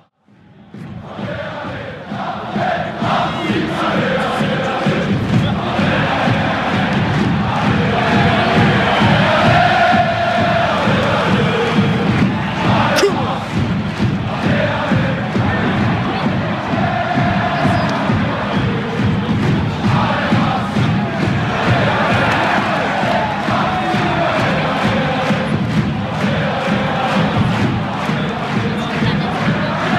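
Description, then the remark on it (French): A huge stadium crowd of football ultras chants and roars together, filmed from beside the ultras' stand, a dense, loud wall of voices that swells in quickly and stays steady for the whole stretch. “Et on était à côté de la tribune des ultras, donc il y avait de l'ambiance.”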